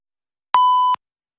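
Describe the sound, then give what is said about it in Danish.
A single steady electronic beep, clear, holding one pure tone for about half a second before cutting off, with silence before and after: the prompt tone of a voicemail answering machine at Danish Broadcasting. “Please leave a message after the beep.”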